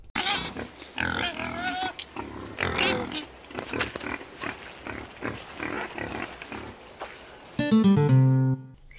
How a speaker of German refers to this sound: Ich blende euch hier mal ein, wie ein Wildschwein wirklich klingt.